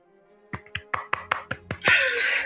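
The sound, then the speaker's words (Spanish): A short, lone round of applause: about seven sharp, evenly spaced claps from a single person, followed by a brief burst of bright, hissy noise as it ends. “Ha sido un aplauso triste, muy típico de Castellón, ¿eh?”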